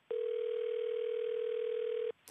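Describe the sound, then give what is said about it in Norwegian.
A single steady telephone ringing tone, as heard when placing a call to the US Department of Defense, the Pentagon, holds for about two seconds, loud and clear on its own, then cuts off into a brief burst of noise. “vi ringer opp USAs forsvarsdepartement, Pentagon, for å få vite hvordan president Obama resonerade”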